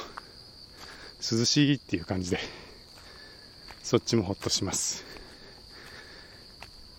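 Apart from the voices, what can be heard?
autumn insects chirping outdoors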